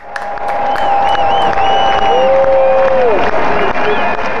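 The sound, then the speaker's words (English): Loud, continuous applause from two people clapping hands fills the whole stretch, a dense wash of clapping with a few sustained whistle-like tones riding over it and no clear pauses, congratulating a man who is getting married this week. “Let's give a big clap for, for Chris right now.”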